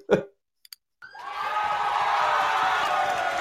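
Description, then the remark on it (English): Canned applause and cheering swells in after a short vocal blip and two quick clicks, then holds steady as a loud, dense wash of clapping and crowd noise. “I'll take the fake applause.”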